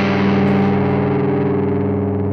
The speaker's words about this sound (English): When played after the first G or plucked slowly in a G root note, the flattened fifth progression creates a dissonant or an ugly tone, especially with distortion.